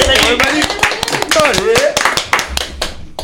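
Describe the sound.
A small group of radio studio hosts at Buzz Radio applauds a colleague's first on-air column, rapid uneven claps running steadily for a few seconds while voices call out and cheer over the clapping.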